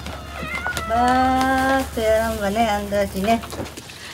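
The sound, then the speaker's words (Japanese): Several drawn-out meows from cats that live on the island come in quick succession, fairly loud, some wavering in pitch, over a steady low background hum, as they are fed outside a shop before it opens. “開店準備を始める前に店の外へ島に住み着いた猫たちへのご飯これも母ちゃんの日課です”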